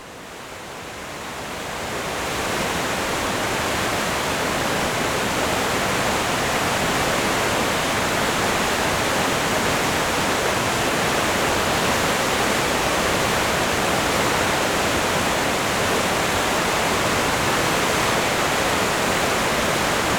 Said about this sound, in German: diese Qualitäten des Sausens kann man wohl am besten am Tor des Gesäuses erfahren, wo sich die Enz mit lautem Gesäuse durch die Felsenge stürzt